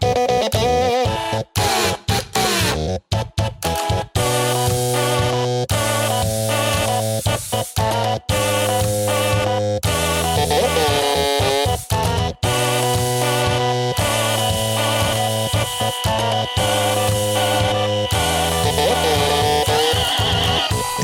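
A catchy tune played entirely on buzzing, whirring household gadgets like a toothbrush, calculator and clothes iron. Steady rhythmic electronic tones layer into a loud, continuous melody with no talking.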